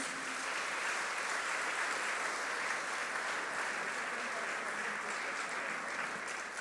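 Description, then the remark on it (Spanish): An audience applauds Jesus after a prayer, a dense wash of many hands clapping at once that holds at an even, fairly loud level for several seconds without a break. “Denle un aplauso a Jesús.”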